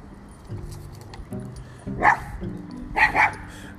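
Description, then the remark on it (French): The dog Oli barks sharply a few times at a boy, one bark and then a quick pair, loud over a low background murmur. “Ah oui, là vous venez d'entendre Oli qui remettait un garçon en place.”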